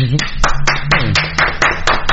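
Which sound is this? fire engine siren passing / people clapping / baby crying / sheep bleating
people clapping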